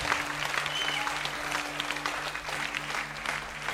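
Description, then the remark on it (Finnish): An audience applauds steadily for several seconds, a dense wash of many hands clapping at once, sustained, with a faint low hum lingering underneath, applauding those who have just made a decision of faith after a prayer. “Annetaan aplodit noille, ketkä teki tuon ratkaisun.”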